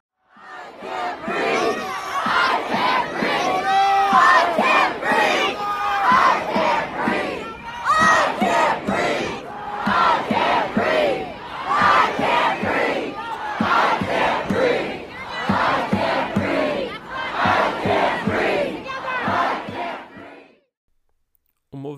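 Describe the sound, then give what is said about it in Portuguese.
A large crowd of protesters chants the rallying cry "I can't breathe" in loud, rhythmic unison, the phrases repeating in steady bursts for about twenty seconds before stopping abruptly. “I Can Breathe se tornou o grito de guerra para os manifestantes americanos e ao redor do mundo.”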